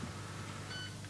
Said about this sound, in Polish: Nie wiem, czy będzie słychać dźwięk, jak wjedzie do ładowarki. O, już ją namierzył.